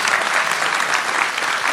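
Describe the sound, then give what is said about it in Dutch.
Steady audience applause for the expert at the table fills the whole stretch, a dense wash of many hands clapping at an even, loud level with no voices standing out. “Natuurlijk ook applaus voor de expert aan tafel”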